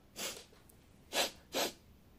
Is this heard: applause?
no